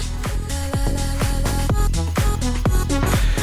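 An electronic dance track plays loud and close, with a steady pounding kick drum about twice a second under sustained synth chords and bright, shimmering high textures. No voices are heard.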